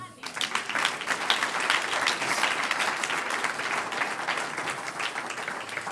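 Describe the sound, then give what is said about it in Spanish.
A crowd breaks into steady applause, dense overlapping claps sustained at an even, fairly loud level for several seconds without pause. “No merece un aplauso.”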